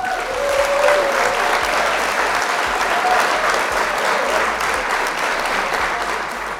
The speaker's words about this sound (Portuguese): Queria pedir uma salva de palmas